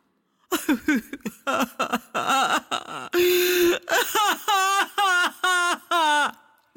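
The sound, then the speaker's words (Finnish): A voice whimpers and cries in a run of short, wavering sobs and wails with brief breaths between them, fairly loud, with no other sounds. “Hyvä kuulija, nyt kuulet ensin vähän itkua.”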